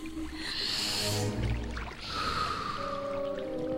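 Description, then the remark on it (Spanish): A long, deep breath drawn in and then slowly let out as a breathing exercise, two airy, rushing phases, with a soft musical tone sustained underneath. “Respira profundamente.”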